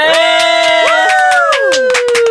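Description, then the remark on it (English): An audience on the show True Me cheers and whoops loudly for a co-host, with high sustained shouts and wavering cries layered over scattered claps, a dense, continuous burst of crowd noise. “So make some noise”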